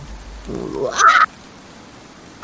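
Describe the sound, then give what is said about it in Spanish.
A scaled creature, shot in the shoulder, gives a pained scream rising into a loud, shrill, strained shriek lasting under a second, heard alone. A second cry begins just as the sound cuts off. “y da un grito”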